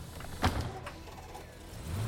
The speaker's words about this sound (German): Die Türen des Busses schließen sich und der Fahrer lässt den Motor an. Er fährt auf den Convention Center Boulevard direkt an der Stelle vorbei, an der Formen und die anderen stehen.